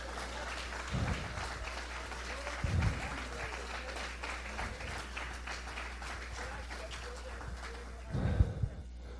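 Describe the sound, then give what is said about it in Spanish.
An audience breaks into sustained applause for God, a dense steady patter of many hands clapping, with a few louder low thumps punctuating it throughout. “Oh, mi árbol, déselo fuerte para Dios.”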